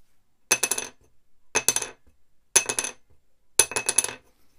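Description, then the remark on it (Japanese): A small new wooden violin soundpost dropped onto a hard surface four times, each drop a bright, high clink followed by quick rattling bounces, clear with silence between. “どっちの方が高い音がしたでしょうか、まあ、多分マイク拾えてるとは思うんですけど、えー、新しい方が高い音がしたんじゃないかなと思います。甲高い音。”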